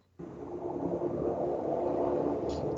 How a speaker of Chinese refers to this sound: 你那边是不是有车过呀？ 啊，是。